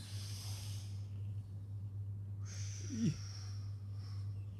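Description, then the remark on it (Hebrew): A short, forceful snort of air blown through the nose, with breathy hiss trailing after it, set against a steady low electrical hum and a faint high whine. “עוד פעם לנשום.”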